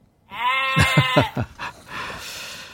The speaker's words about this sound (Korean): 자, 오늘 찾아주실 보물소리를 공개합니다. 김 PD. 염소 소리예요. 에 염소 소리.